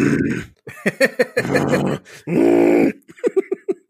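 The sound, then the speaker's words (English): A voice imitates a defective vacuum cleaner, the noise made when ripping up a game: three drawn-out, buzzy droning groans broken up by short sputtering bursts, fairly loud. “no, uh, well, it's uh, I, when I rip up a game, it's more like the defective vacuum cleaner noise”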